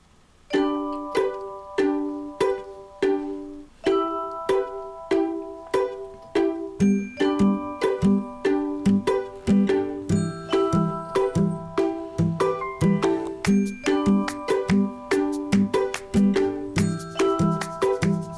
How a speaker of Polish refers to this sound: Takie dzwonki otrzymujemy w telefonie Blind Shell Classic.